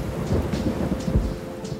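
Steady rain hisses throughout on a night while low, rolling thunder rumbles beneath it, swelling in a few heavy pulses. The storm sounds fairly loud, with no voices present.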